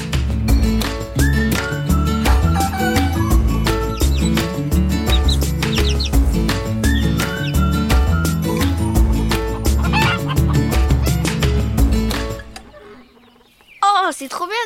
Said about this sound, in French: Tiens, c'est bizarre. Pourquoi les poules font autant de bruit tout d'un coup Vous venez, mes poulettes